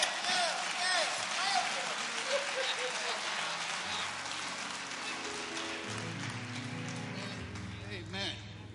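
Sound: audience clapping hands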